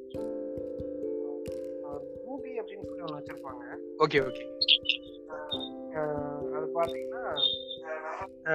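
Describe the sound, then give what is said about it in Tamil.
People talk over a recording thick with echo, their voices smeared and trailing, while steady ringing tones hang beneath the speech throughout, with a few sharp clicks. “echo echo ரொம்ப அதிகமா இருக்கு நாய்ஸ் அதிகமா இருக்கு”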